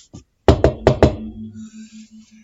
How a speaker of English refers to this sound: Uh, and next minute we hear this knock at the door.